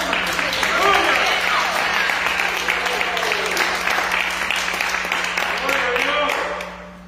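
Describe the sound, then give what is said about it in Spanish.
A church audience applauds for God, a dense wash of many hands clapping at full volume for about six seconds before the sound begins to fade, with a few voices mixed into the crowd. “Si se lo dan, si aplauso fue para mí, es para Dios.”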